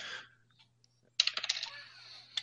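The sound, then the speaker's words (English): Dice, rolled for damage in a game, clatter onto a hard table, a sharp first hit followed by a quick burst of rattling bounces that settles into a faint ringing, with one last click at the end. “Uh, let me roll damage real quick.”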